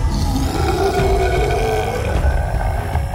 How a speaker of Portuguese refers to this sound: Sinto que estamos sendo seguidos. Deve ser aquele lobo guará gigante com os olhos vermelhos ali, né?